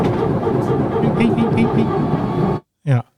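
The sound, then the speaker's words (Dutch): A hydraulic pump in an Airbus aircraft gives a barking, dog-like whine that pulses rhythmically over steady loud cabin rumble, then cuts off, followed by one short yelp-like burst. “Ja, het klinkt echt als een blaffende hond.”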